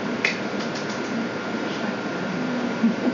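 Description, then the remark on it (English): A printer runs steadily, a continuous mechanical whir with faint ticks and clicks as the paper feeds through, at a moderate level with no voices. “Forgot to print something out.”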